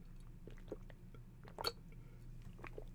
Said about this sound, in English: I have to take a drink of water. Hold on.